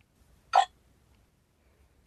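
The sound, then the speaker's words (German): A single short electronic error tone from a translator gadget, signalling it did not understand the word "Gadget" and cannot translate it: a brief buzzy blip that sounds once and cuts off, leaving near silence with faint background noise. “Das ist ein Geräusch, das anzeigt, dass es das nicht verstanden hat und nicht übersetzen kann interessanterweise eben bei einem, wenn ein Gadget das bei einem Gadget macht, ist doch schon irgendwie komisch,”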